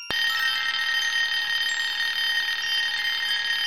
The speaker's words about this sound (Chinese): 电话又响了，铃声是那么尖锐